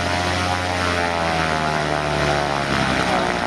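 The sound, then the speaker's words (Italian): A small Cessna propeller plane drones steadily and loudly throughout, its engine hum holding a constant pitch with layered harmonic buzz and no voices or breaks. This is the type of plane Mathias Rust flew over Estonia to Moscow in 1987. “Accade nel 1987, quando Mattias Rast, un ragazzino di 19 anni della DDR, a bordo di un piccolo Cessna, viola tutti i sistemi di difesa aerea sovietici sorvolando i paesi del nord e quindi l'Estonia per arrivare sopra Mosca.”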